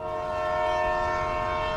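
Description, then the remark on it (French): A train sets off with a steady, loud horn-like tone held for the full couple of seconds over a low rumbling engine noise, with no voices. “Attention à la fermeture des portes, attention au départ.”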